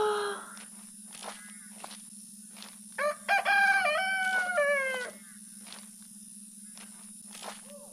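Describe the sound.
A voice imitates a rooster's cock-a-doodle-doo, one loud drawn-out crow with rising and falling harmonic notes lasting about two seconds, with a steady hum and scattered soft clicks around it.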